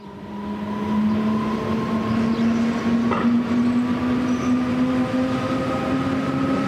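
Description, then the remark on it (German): A steady, rising electric whine from the traction motors and gearbox of an RhB GE 662 electric locomotive of the 700 series, a Graubünden classic from the 1960s, with a strong sustained tone and higher harmonics over continuous rumbling rail noise; loud, no talking. “Das typische Heulen der Motoren und dem Getriebe von einer 700er, einem Bündner Lokklassiker aus den 60er Jahren.”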